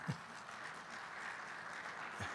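Steady audience applause, a dense wash of many hands clapping at a moderate level, with brief snatches of a voice at the start and end.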